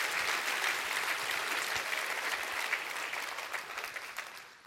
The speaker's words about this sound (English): Come on, let's clap our hands and rejoice.